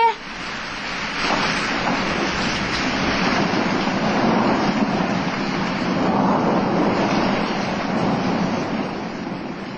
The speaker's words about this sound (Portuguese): Depois de quase uma hora de angústia e desespero, a tempestade foi se acalmando, assim como o mar.